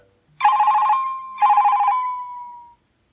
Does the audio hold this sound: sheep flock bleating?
no